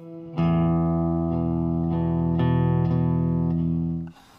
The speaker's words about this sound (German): Nein, es geht in ein Iglo. Genauer gesagt zu einem Eiskonzert. Und das ist nicht das einzig Außergewöhnliche hier. Schaut mal genau hin. Alle Instrumente sind aus Eis gebaut und das klingt so.